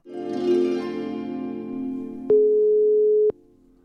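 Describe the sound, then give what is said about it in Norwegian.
A single steady ringing tone of an outgoing telephone call from Ladvik to Marit Breivik sounds for about a second, starting and stopping abruptly with faint clicks, over a low droning hum in the background. “Det er Nils Erik Kvamme som ringer fra Ladvik.”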